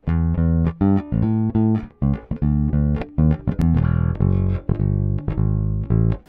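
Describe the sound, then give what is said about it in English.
An electric guitar runs through an effects pedal with its bass cut a little, playing loud chords and sustained notes in a steady rhythm, with no voices. “Uh, here's the bass cut a little bit.”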